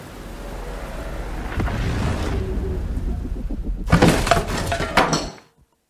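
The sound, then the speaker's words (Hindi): A heavy, broken 200 to 300 year old wooden door of the Shamsheer Haveli in Lucknow, pushed once, strains with a low, grinding rumble that builds, then gives way in a loud splintering crash and a burst of clattering debris before cutting to silence. “अर्जुन ने इधर उधर देखा तो पास ही टूटा फूटा एक 200-300 साल पुराना जर्दर दरवाजा था लकड़ी भारी थी लेकिन वक्त की मार झेलना अब मुश्किल लग रहा था उसका अर्जुन ने एक धक्का मारा तो वो भीम का दरवाजा चरमरा के गिर ही पड़ा”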